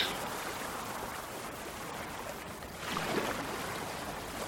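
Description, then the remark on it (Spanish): Rough sea water surges and churns against a ship in a storm, a steady, dense wash of noise as ever higher waves shake the vessel, swelling louder about three seconds in as a bigger wave crashes, with no voices. “Pero sus gritos, silenciados por el rumor del viento, no fueron oídos, y las olas, cada vez más altas, sacudieron con fuerza la nave.”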